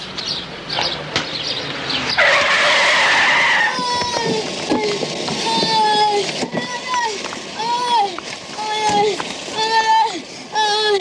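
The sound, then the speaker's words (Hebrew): In a film scene, a passing car brakes hard with a loud, hissing screech lasting about a second as a boy pretends to be hit by its wheels, then excited voices shout and talk for the rest of the scene. “בואו נזכר בסצנה הזאת, מיקו עושה את עצמו נפגע מגלגליה של מכונית עוברת, וצ'ארלי, בא לגבות מהנהג דמי לא יחרט.”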